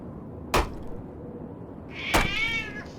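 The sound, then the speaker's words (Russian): A sharp knock, then a second knock as a cat gives a single high, drawn-out meow lasting under a second. Faint background noise underneath, and no one speaks. “Выскочил каток, золотый лобок.”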